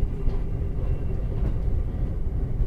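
The Night Limited Express Cassiopeia sleeper train rumbles steadily along the rails as it arrives at Ueno about 30 minutes late, a continuous deep, loud drone heard from onboard, with no distinct clicks and no voices.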